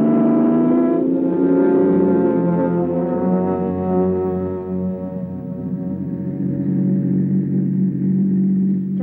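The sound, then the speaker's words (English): A car engine drones loudly and steadily for several seconds, its deep harmonic rumble shifting slightly in pitch as the vehicle pulls away, with no voices over it. “Come on, car, let's go.”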